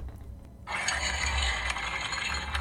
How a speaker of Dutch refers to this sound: Dat klinkt toch nat? ja, het klinkt nat. nou, heel vet. Bizar. Bizar. Ehm, dus dat is hoe het klinkt. Nou ja, dit is dus inderdaad het geluidsfragment van ons aardmagnetische veld. Het is wel een geomagnetische storm.